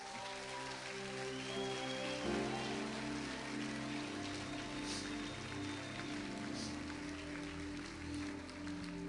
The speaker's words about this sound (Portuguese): Se você vai aplaudir, aplauda direito.